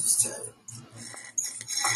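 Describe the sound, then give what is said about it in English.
Crinkly scratching and tapping as a small juice box is handled, in short uneven bursts with a brief pause midway, with no voices. “It's a juice box, dude.”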